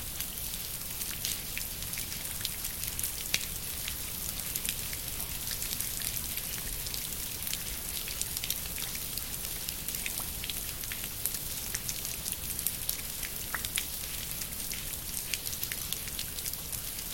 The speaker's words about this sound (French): La pluie. Enfin, avec la pluie, qu'est-ce qu'on entend La pluie elle-même ou la surface sur laquelle tombe la pluie parce qu'il me semble que c'est l'impact des gouttes sur un support qui crée la texture sonore de la pluie.